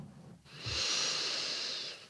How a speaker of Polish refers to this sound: właśnie teraz nadwzięłam ten głęboki oddech, możesz go wypuścić i masz jakiś rodzaj lekkości w sercu.